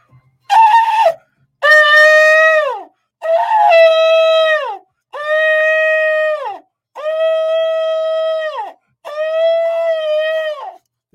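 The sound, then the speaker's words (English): A shofar is blown at the start of a broadcast, sounding six loud, sustained blasts in a row, each held for about a second and a half before sliding down in pitch, with short silences between and no talking. “and listen, let's start this broadcast with with the blowing of the shofar.”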